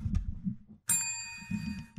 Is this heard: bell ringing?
yes